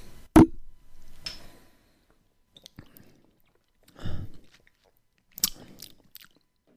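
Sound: sipping beer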